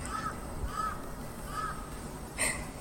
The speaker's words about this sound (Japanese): カラスがうるさい